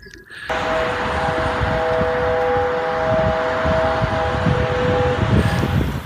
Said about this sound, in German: Aber es geht tatsächlich ähm, um den Kern der Sache, die Daimler-Hupe. Kennt ihr die? Die Daimler-Hupe, die macht so so in etwa.